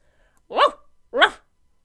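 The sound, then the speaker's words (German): A dog named Bailey barks twice, two short, fairly loud barks about half a second apart, with nothing else around them. “Es ist Bailey, der Hund von Märchenoper Rolle.”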